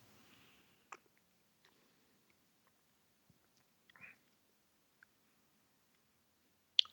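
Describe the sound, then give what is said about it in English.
Someone takes a quiet sip of a bitter liquor before drinking the rest as a shot: faint slurping and wet mouth noises among sparse small clicks, then a sharper click at the very end. No one speaks. “I'm going to take a sip before I shoot the rest because I got to find out what this actually tastes like.”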